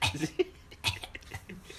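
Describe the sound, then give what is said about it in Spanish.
A person imitates a cat coughing up a hairball with a rapid run of harsh, raspy coughs and throaty retching bursts, moderately loud, with short gasping breaths between them. “así todo tose. Así tose.”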